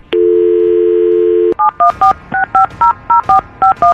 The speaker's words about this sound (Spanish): Vamos a marcarle a tu niña.